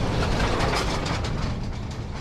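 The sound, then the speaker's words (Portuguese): A heavy truck rumbles over the stone-paved road of the Estrada Nacional 251 in Zervadinha, a loud, continuous rattling and clattering with deep low-end rumble that holds steady throughout, without any voices. “Diariamente, milhares de caminhões passam, na Zervadinha, pela Estrada Nacional 251, pavimento de pedra, para desespero dos habitantes.”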